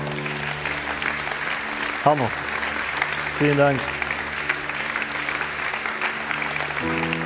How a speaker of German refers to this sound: Vielleicht können wir einfach mal aufstehen, den Leuten Applaus geben. Kommt einfach hier nach vorne.